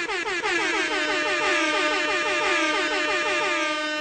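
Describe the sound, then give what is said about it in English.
A loud, blaring quadruple air horn blast sounds continuously for several seconds, its brassy multi-tone wail wavering slightly in pitch with no pause. No talking. “I don't know how to break it to you, but this is a quadruple air horn situation.”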